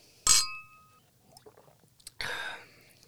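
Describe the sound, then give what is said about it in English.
Beer glasses clink together in a toast: one bright, ringing chime with a lingering high tone, then softer shuffling and a second, duller clatter of glass. “Let's have cheers.”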